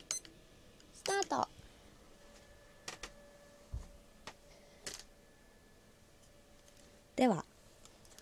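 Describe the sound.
Short electronic beeps and button clicks from a kitchen timer being set for 10 minutes to time a soak while cooking, scattered irregularly, with a brief murmur of voice near the end over a quiet hum.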